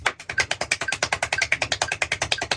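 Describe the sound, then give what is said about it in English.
A fast, steady run of sharp mechanical clicks, roughly ten per second, like a hand tally counter being pressed over and over, moderately loud with no voices. “That's the counter. They're counting”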